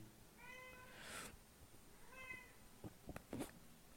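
A female pet cat meows twice, two drawn-out, slightly wavering calls separated by a short pause, followed by a few soft thumps and rustles, with no talking.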